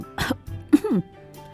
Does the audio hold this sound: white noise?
no